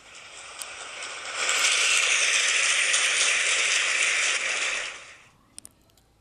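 A burst of applause from a group welcoming a guest swells to a steady, dense clatter of clapping for about three seconds, then fades out, leaving a couple of final isolated claps.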